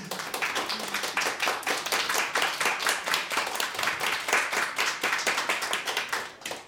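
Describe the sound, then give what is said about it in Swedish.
A crowd claps steadily for several seconds, a dense, bright patter of many hands that stays loud throughout before tapering off at the end, with no voices. “En stor applåd”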